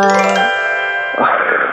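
A loud doorbell chime, the wake-up call bell of radio host Jo Woo-jong's show, rings alone, a sustained bright tone that rings on and then shifts into a second, brassier burst near the end, like a two-note ding-dong.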